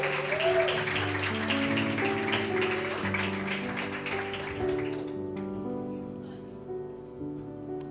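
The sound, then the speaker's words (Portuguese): A crowd claps steadily for about five seconds after a Portuguese-speaking preacher calls for applause, a dense crackling roar, then the applause quickly dies away while sustained keyboard chords carry on underneath and continue alone. “Aplaude, gente, é direito, pelo amor de Deus.”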